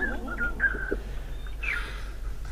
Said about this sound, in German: Ich habe auch ein Outro gemacht.